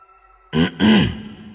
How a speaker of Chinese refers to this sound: 我后退了一步，重重的咳嗽了一声。